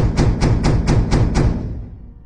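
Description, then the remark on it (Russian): A quick series of six heavy, dull knocks on a front door with a peephole, fairly evenly spaced, followed by a fading low rumble. No one speaks. “Затем раздался странный неритмичный стук.”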